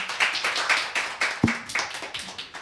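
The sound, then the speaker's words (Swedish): A small audience claps in a steady, brisk rhythm, each clap crisp, with a single dull thump partway through. There is no talking, just the clapping throughout. “En applåd!”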